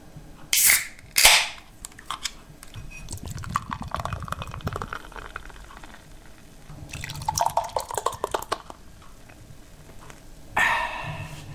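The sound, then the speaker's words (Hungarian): A can or bottle of beer cracks open with two sharp pops, then the beer pours and fizzes in a bubbling, gurgling stream, ending with another quick hiss of carbonation. “az egy sört. És akkor ez már tulajdonképpen egy ilyen ASMR adás lesz, hogy...”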